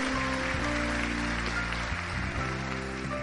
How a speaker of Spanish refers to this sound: Dale como un aplauso al Rey de Reyes.